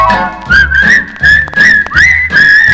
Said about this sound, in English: What do you see in Omaha that you never see in other cities? You see whistling people.